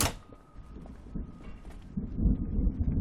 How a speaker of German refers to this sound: Ach du je, auch das noch. Ein Gewitter.